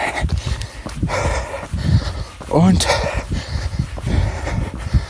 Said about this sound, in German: Oh, schnaufe gerade etwas. Hier ging es gerade steil hoch. Und ich bin mit zu viel Watt unterwegs gerade gewesen.